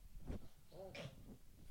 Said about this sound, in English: And the noise you can hear is my dog, the one remaining dog that we have, uh, having a bit of a, a, chesty cough.